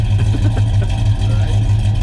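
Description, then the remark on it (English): An older big block Chevy V8 engine with a lumpy cam revs, rumbling loud with a lumpy, loping beat, its deep uneven exhaust pulses throbbing steadily throughout with no voices. “I'm going to say, yeah, it's a lumpy exhaust note.”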